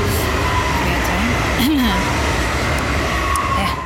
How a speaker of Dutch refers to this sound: Trein nummer 7 komt ook nog even langs tijdens dit dramatische verhaal van mijn kant.